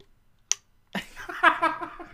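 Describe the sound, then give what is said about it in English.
A single crisp click of a water bottle lid snaps shut, followed a moment later by a person laughing and vocalizing loudly. “I have like a so. little clicky lid.”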